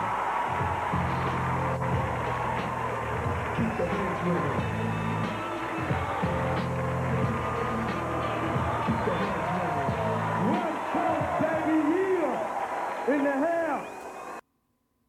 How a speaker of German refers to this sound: Ja, also die Leute buhen.